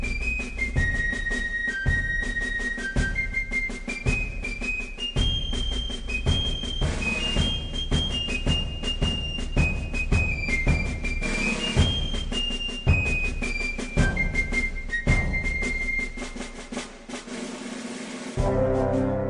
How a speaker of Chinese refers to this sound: 每一集的片尾曲都会吹着一个口哨，然后就开始切入这首曲子。